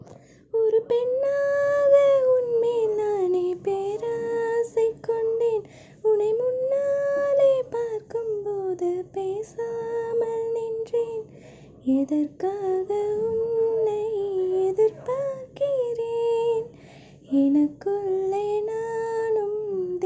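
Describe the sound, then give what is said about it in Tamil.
A woman sings a slow, melodic song alone with no instrumental backing, her voice steady, holding long wavering notes in phrases separated by short breaths. “நீங்கள் நிறைய short films பண்ணியிருந்தாலும் சிங்கர்னு கேள்விப்பட்டேன் ஸோ ஒரு பாட்டு பாட முடியுமா பாட்டா ஐயோ கேவலமாக பாடுவேனே சரி ஓகே ப்ரோ பாடுறேன்”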